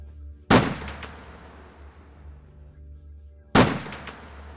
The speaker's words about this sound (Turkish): Namluyu karanlık göğe çevirip iki kez ateş etti. Ses vadide yankılandı.